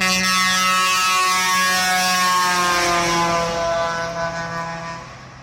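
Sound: truck air horn honking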